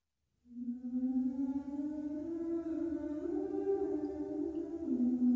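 A choir sings long, sustained notes that slowly step between pitches, the blended voices steady and full after a brief silent start, with no speaking.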